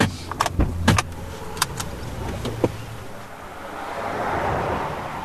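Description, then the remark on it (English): A few sharp clicks and thumps, like a car door and keys, followed by a car engine starting up and a steady, swelling hum as the car drives from the western branch of the 8 Mile area in Connecticut to its eastern side. “As we hop in a car and travel from the 8 Miles western branch to its eastern side”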